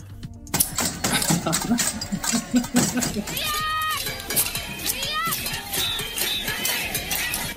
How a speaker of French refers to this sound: Alors on va regarder un peu les, tapeurs de casserole.